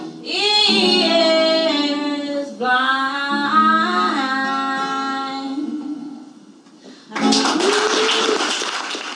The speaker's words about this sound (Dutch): En applaus.